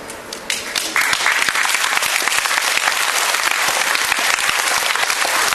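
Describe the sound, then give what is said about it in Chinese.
An audience bursts into applause, a dense, steady patter of many hands clapping that swells after the first second and stays loud and even to the end. “这个掌声不是给我的，不是给任何一个讲师的，应该给你自己这个掌声。”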